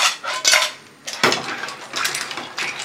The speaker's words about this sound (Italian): iniziate a mescolare con le pinze gli spaghetti con il condimento delle vongole e poi se siete abbastanza eh, coraggiosi o anche ormai del mestiere, dai, potete saltare gli spaghetti in padella.